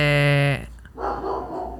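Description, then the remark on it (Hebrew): Dogs barking: one loud, drawn-out tonal bark gives way to a burst of rougher, scratchier barking, with no voices over it. “הנה, הכלבים גם יש להם מה לומר. הכלבים מאוד כועסים על הטינדר.”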